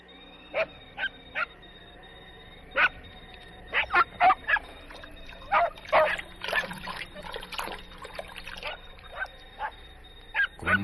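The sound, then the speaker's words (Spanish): A dog barks repeatedly in short, sharp bursts, some spaced apart and others clustered, over a faint background hum. “Tranquiliza al perro y se sienta en la mecedora.”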